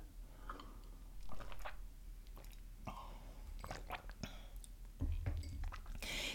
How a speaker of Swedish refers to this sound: Jag har skrivit ner några punkter för att i min värld så är det så att vi alla vet ska dricka lite vatten. Skål!